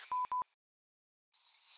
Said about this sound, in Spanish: tengo que poner los pitidos, lo que tengo que poner cuando empieza a decirme.